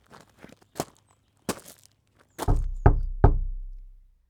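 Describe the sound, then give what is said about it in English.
A few light footsteps approach, then three loud, booming knocks on the front door of a house in a cul-de-sac ring out, evenly spaced with a low resonant thud that lingers afterward, with no answer. No voices. “No answer at the front door.”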